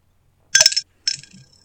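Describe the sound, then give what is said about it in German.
A coin is thrown into a glass swear jar with a bright metallic clink, followed by a second, softer rattling clink as it settles. Two short, clear bursts, with no talking. “Ja, da ist die Münze im Schimpfglas verschwunden.”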